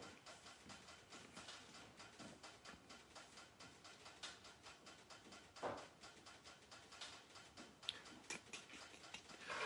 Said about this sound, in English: That's the metal expanding on the big morsel stove.